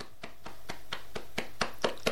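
A hand slaps soft trousers in a quick, steady rhythm, about nine muffled pats that grow slightly louder toward the end, with no voices.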